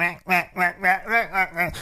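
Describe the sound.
A person voices a rapid run of about seven harsh, nasal squawks, imitating a parrot, fairly loud with a steady choppy rhythm and no other sounds around it.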